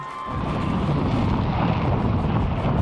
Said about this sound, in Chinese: 火箭直直向上喷射，飞越云层，穿越大气层。